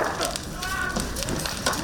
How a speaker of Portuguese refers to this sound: O fogo se espalha rápido pelas casas.